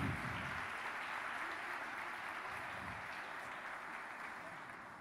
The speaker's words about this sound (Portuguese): Você pode aplaudir o Senhor por mais uma criança saudável no nosso meio?